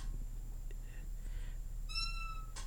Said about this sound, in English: God, it's so terrible. I want to get the mic down so I don't want to mess up the mic, but I was going to get it close to the chair so I could get some real good sound bites from that chair making noise in the clips.